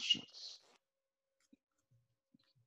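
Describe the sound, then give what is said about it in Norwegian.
A short burst of crisp, papery flicking as a deck of playing cards is riffled or shuffled, lasting under a second, followed by a few faint, scattered soft taps in near silence. “Det, det er vanskelig med kortstokken her, da.”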